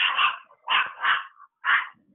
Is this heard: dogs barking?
yes